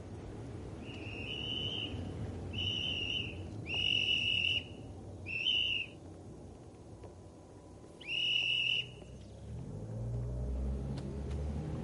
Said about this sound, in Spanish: Un chico con silbato le ordena detenerse para que cruce un grupo de colegiales.